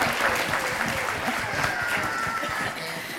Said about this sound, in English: Oh, round of applause for the adults, everybody.